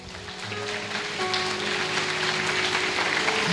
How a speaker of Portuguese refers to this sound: Quem dá um aplauso para Jesus?